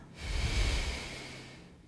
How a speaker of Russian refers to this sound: Отметьте, как дыхание проходит сквозь вас. Вдох и выдох. И еще один вдох. И выдох.